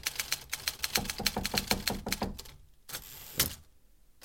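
Rapid typewriter keystrokes from someone typing on a typewriter on the first floor clatter in a quick, uneven burst for a couple of seconds, followed by a brief pause and a sharp carriage-return or bell-like clunk near the end.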